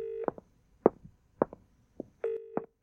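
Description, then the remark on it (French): Telephone dialing tones as someone tries to call: a steady mid-pitched tone, then a string of short electronic beeps and clicks at uneven intervals, ending in another sustained tone. No voices. “Au moment où tu essayes d'appeler euh, Rita”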